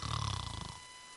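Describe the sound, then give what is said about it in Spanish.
A voice imitates the loud, rattling snore of someone who has lain down to sleep, one drawn-out throaty inhale that buzzes for most of a second, then fades into quiet. “y roncando.”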